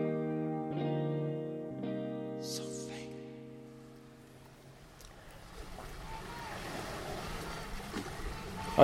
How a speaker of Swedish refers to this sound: hör ju hur vågorna plaskar här runt om oss. Runt, runt om oss. Det är framför oss i alla fall. Det är framför oss.